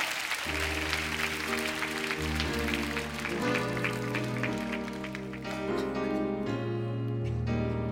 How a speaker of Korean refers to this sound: 박수 올려드립시다. 할렐루야.